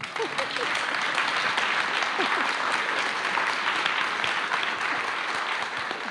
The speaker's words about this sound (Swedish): så det kom jag fram till. kan du få en applåd för, tycker jag.